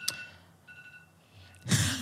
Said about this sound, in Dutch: Oh ja, onze technicus gaat het uitzetten. Oh, dus, oh, is jouw wekker dat je weg moet. Wekker, ja, dat ik op tijd kom. Oké, oké. Maar goed, zet hem uit.